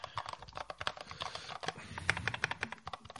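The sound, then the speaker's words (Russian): Rapid, uneven keystrokes clatter on a mechanical keyboard, a dense run of sharp clicks with a few louder clacks, with no talking. “Любая клавиатура механическая э, по звучанию будет громче, чем ноутбучная клавиатура.”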